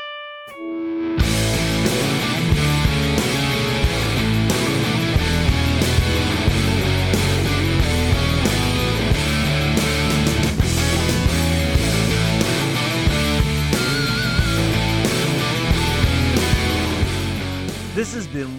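A loud rock band song bursts in after a brief sustained tone, with driving drums, distorted electric guitars and sung vocals playing steadily and up close throughout.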